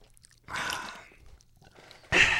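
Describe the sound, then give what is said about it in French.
A quick sip of a drink, a short wet slurp followed after a brief pause by a second, sharper burst of sipping noise, with no talking. “Prends une petite gorgée pour commencer, parce qu'on commence.”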